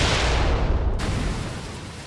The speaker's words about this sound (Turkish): Ve tam da o sırada çok şiddetli bir patlama oldu.